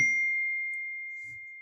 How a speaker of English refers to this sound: The notification on my phone made me freeze. It was from my mother.